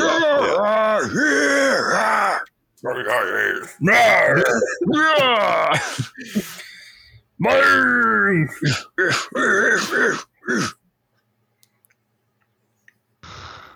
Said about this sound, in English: There's just so much yelling and grunting in this movie.